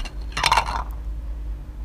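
Dirty ceramic plates clink together briefly as they are picked up and shifted to eat from, a quick cluster of bright knocks, then a low hum with no talking.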